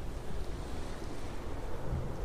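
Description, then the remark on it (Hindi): A steady, dense roar of stormy sea waves churning under strong gusting wind as a ship is tossed about on the sea in a fierce storm, loud and continuous throughout with no voices. “और यह तूफान बराबर बढ़ता ही गया अंत में उस तूफान ने एक बड़ा भयंकर रूप धारण कर लिया तेज आंधी में वरदान का जहाज एक सूखे पत्ते की तरह समंदर में इधर उधर डोलने लगा”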